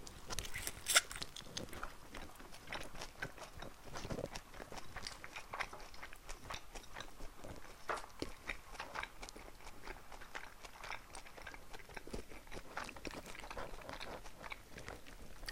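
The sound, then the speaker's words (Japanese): Wet chewing of soft, sticky mochi rice cake, with irregular smacking and squelching bites continuing steadily throughout, fairly quiet and with no talking. “餅は咀嚼するのに時間かかるねだからいつもより話が途切れがちですよねちょっと食べてちょっと話すみたいな感じでいつもやってるけどさこのひとたび口に入れたら結構噛まないといけないからなかなか大変だこれ。”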